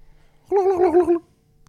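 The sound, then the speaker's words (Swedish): A voice imitates a turkey gobble in one short, warbling burst of about three-quarters of a second, loud, with silence before and after. “Kalkon.”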